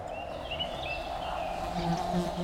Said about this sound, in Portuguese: As abelhas sussurram, da cor do sol.